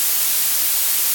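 A steady hiss of blue noise, weighted toward the highest pitches so it sounds thin, sharp and piercing, continuing evenly and fairly loud for just over a second with no other sounds.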